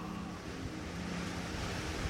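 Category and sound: nature, strong wind blowing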